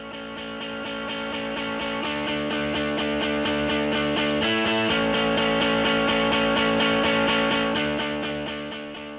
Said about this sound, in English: The theme music has been provided by